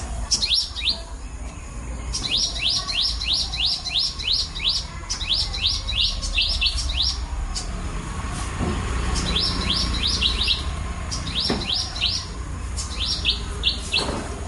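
Tropical birdsong in Sri Lanka rings out in repeated bursts of quick, high chirping notes over a steady low rumble of ambient background noise with no talking.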